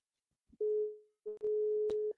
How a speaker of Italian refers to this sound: Vediamo se ci risponde telefono squilla. Bene, perché questa attesa veramente trepidante.